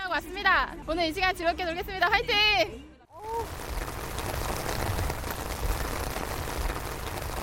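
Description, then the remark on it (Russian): A voice speaks briefly, then a heavy downpour falls on a city: a dense, steady hiss of pouring rain that stays loud until the end. “И вскоре действительно на город обрушился страшный ливень.”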